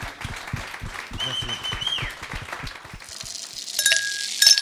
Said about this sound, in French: Donc merci, à vous. On peut les applaudir.